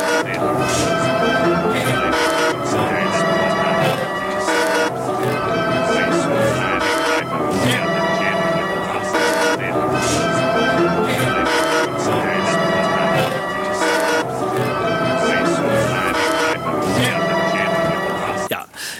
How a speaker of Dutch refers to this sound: Dus ik heb één fragment van Beethoven opgezocht waarvan ik wist dat dat de choral fantasy was. Ludwig van Beethoven.